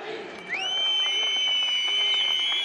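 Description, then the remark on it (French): A protest crowd of the Kurdish community in the streets of Paris, France, expressing anger after the killing of three of its members, with piercing whistles rising around half a second in and holding as long, steady high-pitched tones over a dense, loud murmur of many voices. “Trois jours après le drame, les larmes ont laissé place aux sifflets.”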